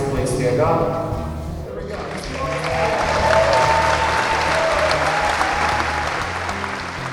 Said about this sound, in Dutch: Nou, de winnaars mochten gaan staan, en eh, kregen een applaus.